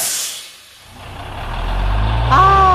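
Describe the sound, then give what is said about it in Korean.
A bus door shuts as the bus is about to depart, with a sharp burst of pneumatic hiss, then a heavy diesel engine rumbles and rises, a tonal whine joining near the end. “아, 근데 버스가 출발해야 했고 이 문이 닫히는 거예요.”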